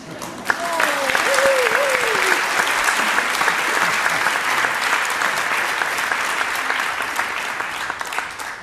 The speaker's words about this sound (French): donc je vous entends applaudir, c'est que vous êtes tous d'accord avec le discours qui a été tenu.